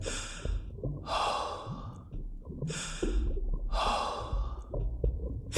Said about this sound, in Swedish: När jag kommer upp till ytan rusar pulsen. Andningen är häftig, närmast stötvis och det tar ett tag att andas långsamt och regelbundet.